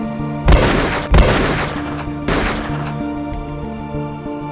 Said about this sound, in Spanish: Los movimientos se precipitaron, un disparo, otro y otro más.